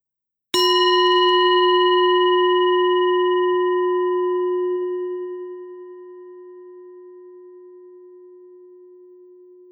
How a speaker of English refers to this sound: Like if you do sound meditation, I have a bowl in my hand right now.